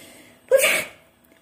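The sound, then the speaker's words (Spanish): A single sharp sneeze, a quick breathy intake snapping into a hissing blast that fades within a fraction of a second, likely voiced by a storyteller acting out a witch sneezing from an allergy to a black cat. “Estornudaba sin parar.”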